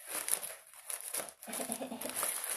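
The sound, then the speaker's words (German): Baking paper crinkles and rustles continuously while being pressed into a baking tin to line it for a dough, a dense crackling with a brief pause in the middle before the scrunching resumes, no one speaking. “Wie um alles in der Welt kriege ich diesen Teig in die Form, die ich natürlich mit Backpapier auslege.”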